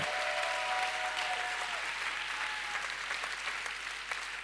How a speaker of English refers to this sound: Clap your hands. Come on, give God Hайде, a clap. Хора. О, дайте ръкопляскане на Бог.